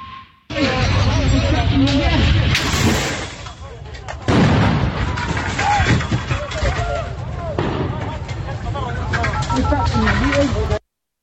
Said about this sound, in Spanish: Esto que usted está escuchando, que suena bastante fuerte, se oyen cómo se rompen vidrios y se ataca, es un ataque que ocurrió hoy de grupos de encapuchados, jóvenes encapuchados que atacaron el Palacio Municipal, la Presidencia Municipal